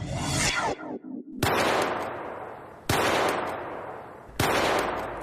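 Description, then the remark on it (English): A phone ringtone made of gunshot sounds: three loud, sharp blasts about a second and a half apart, each trailing off in a long echoing decay, after a brief whooshing rustle. “What the fuck up with that ringtone?”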